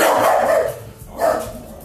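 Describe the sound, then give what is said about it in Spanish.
A dog barks twice at a cat, loud: a long, drawn-out bark, a brief pause, then a second shorter one. No one speaks. “Y bueno, nada, no es cierto, le está ladrando un gato.”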